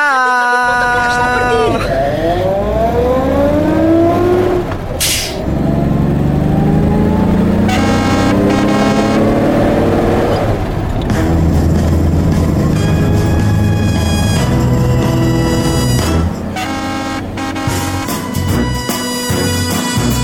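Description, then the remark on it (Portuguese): A bus pulls away, its engine revving and rising in pitch, with a few loud horn toots, all mixed with bright, busy music and some voices. “Vamos, pois, e vamos de autocarro.”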